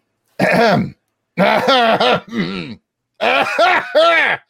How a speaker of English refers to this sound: I, I, are you coughing?